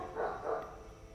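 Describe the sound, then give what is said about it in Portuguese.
Two quick dog barks in a row sound in the background during a prayer, fairly soft against a low background hum, with no one talking. “Muitos de vocês vão ouvir os cachorros latindo ao fundo dessa oração.”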